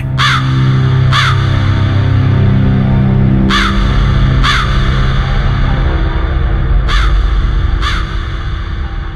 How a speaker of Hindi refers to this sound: दिन के वक्त कौए की काव काव आम बात है लेकिन रात के अंधेरे में कौआ खिड़की पे आके काव काव करे तो घबराहट का होना लाजमी है